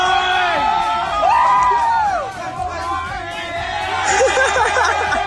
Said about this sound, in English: Okay, so it sounds mostly like a bunch of yahoos and yeehaws, but what you're actually hearing is a somewhat overserved spectator running onto the field to offer a beer